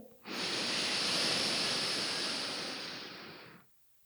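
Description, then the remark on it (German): A long, steady breath drawn in through one nostril during a breathing exercise, a broad airy hiss lasting about three seconds, alone with no talking. “Das heißt, wir atmen immer durch ein Nasenloch aus und dann wieder ein durch das gleiche.”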